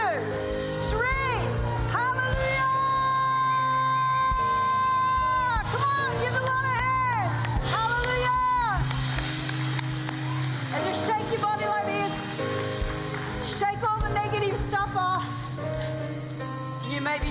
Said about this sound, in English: Yeah, let's just shake it off right now by shouting to the Lord. You ready? After three, one, two.